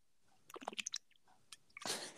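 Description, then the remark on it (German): Wet mouth sounds and small clicks from a sip of lukewarm water, ending in a louder, breathy gulp as it's swallowed from a favourite bottle. No talking. “Straight schönen Schluck Wasser aus der Lieblingsflasche.”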